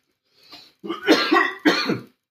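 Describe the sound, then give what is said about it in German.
A soft throat-clearing rasp followed by two harsher coughs, slightly muffled as the person turns away from the microphone, with no talking during the bursts. “Muss mal kurz so husten, ich drehe mich mal vom Mikrofon weg.”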